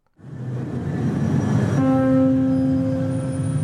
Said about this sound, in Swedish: Nej, men då kanske vi tar och avrundar där och beger oss iväg mot eh, Londons tunnelbana